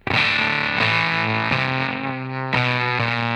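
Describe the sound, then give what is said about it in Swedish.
A heavily distorted guitar played through an effects pedal switched to its first, gated mode plays sustained chords that change abruptly every second or so, with a thick, buzzing effected tone and no voices. “Vad händer om man slår på det här eh, första läget nu, det här liksom gatade läget?”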